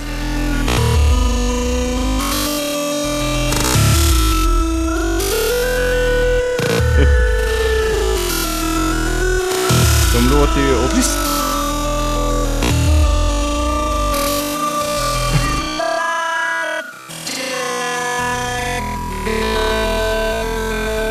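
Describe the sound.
A loud, clashing instrumental rendition of a pop song, with wavering, out-of-tune melody lines over steady thumping beats. A voice briefly speaks over the music.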